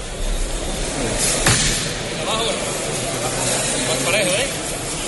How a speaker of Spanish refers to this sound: Y con este golpe de, tam- de- de martillo lo vuelven a depositar en el suelo del templo.